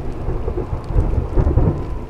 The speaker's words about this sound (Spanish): Un viento que parecía haber traído consigo nubes negras que anunciaban una tormenta.